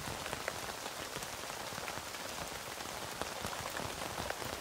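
Steady rain patters on a tent, a dense hiss of countless drops with occasional louder taps standing out, holding an even level throughout with no voices.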